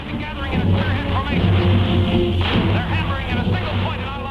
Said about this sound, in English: This is the sound of giant locusts attacking towns in Illinois.